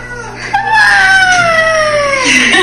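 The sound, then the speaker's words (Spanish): A child's voice imitates a wolf with one long, drawn-out howl that slowly slides down in pitch, fairly loud, lasting about two seconds. “¿Cómo le hace el lobo?”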